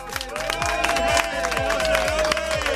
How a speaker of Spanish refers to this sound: Pero quiero un fuerte aplauso, por favor